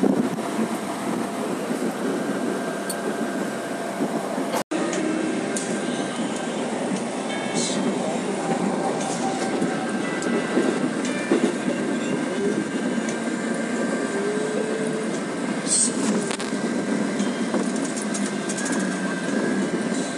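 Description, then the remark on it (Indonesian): Busy commuter train station ambience at Lenteng Agung station around 9 o'clock, dominated by a steady, loud rumble and hiss of a passing commuter train, with faint indistinct voices mixed into the background noise. “nah nanti kita akan coba rekam di Lenteng Agung seperti apa suasananya perkiraan gue sih akan sedikit lebih sepi karena kondisinya memang udah uh, jam 9 ini udah lumayan sepi ya di sana.”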